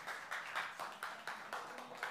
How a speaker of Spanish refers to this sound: Dale un aplauso más al Señor en esta mañana.